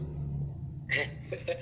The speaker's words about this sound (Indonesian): ini suara mobil berisik cok